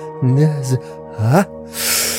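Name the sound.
heavy breathing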